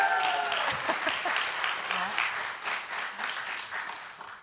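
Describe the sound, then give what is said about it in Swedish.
A church audience breaks into sustained applause for a pastor marking five years there, a dense wash of many hands clapping at steady volume for several seconds, with a few faint voices mixed in. “Det lät som att ty de tycker du gör ett bra jobb.”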